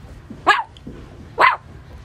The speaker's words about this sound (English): Number one, a dog. A dog. It's a kind of animal.